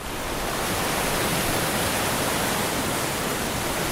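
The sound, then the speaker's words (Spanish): A steady, full hiss of sea waves washing on a beach at Torremolinos on the Costa del Sol, loud, with no distinct breaks or swells, just a constant roar and no voices, on a clear, cloudless, sunny day. “Y estamos, claro, frente al mar.”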